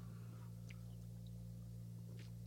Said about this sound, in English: as I take my last sip of beer, we're going to call this one a show.